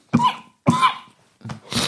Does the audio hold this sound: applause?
no